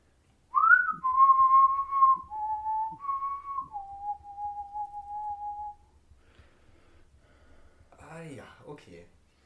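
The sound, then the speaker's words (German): A single person whistles a slow, eerie melody of sustained, wavering notes for about five seconds, clear, imitating music, ending with a sharp intake of breath or gasp. “Und manchmal höre ich solche Musik, so ein”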